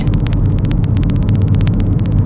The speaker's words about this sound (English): I didn't see you, sneaky car, sneaking up on me on my left.